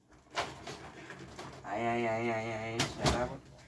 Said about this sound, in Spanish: Mi puerta es una de estas de acordeón, ¿vale? En plan, de estas que, no son de abre y cierra, en plan, tiras para la derecha y ya se cierra. Así que no sé si es bueno o malo, suena más de lo normal,